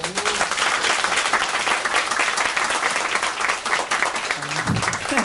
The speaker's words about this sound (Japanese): 何の拍手